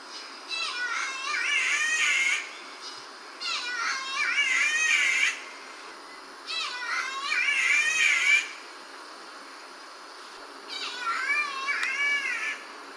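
A catbird of the bowerbird family gives harsh, nasal mewling calls that sound like a strained cat, in four separate bursts of wavering notes with short pauses between, loud over faint background noise.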